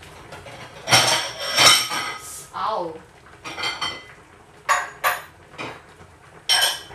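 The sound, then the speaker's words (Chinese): Bowls and dishes clink and clatter in a series of sharp, bright knocks at irregular intervals, some louder bursts, with a brief spoken exclamation in between, as someone at home looks for a bowl big enough for a large pot of food. “这一锅的菜很多，这一锅菜很多哦，我知道了，拿这个碗。”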